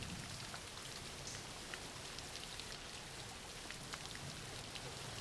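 Steady rain falling, a dense continuous hiss with scattered sharper drop taps across the whole span, fairly quiet and even in level with no voices.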